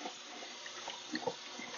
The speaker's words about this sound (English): may hear a little bit of water in the background.